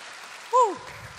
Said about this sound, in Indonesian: Berikan tepuk tangan buat kemuliaan Tuhan Yesus.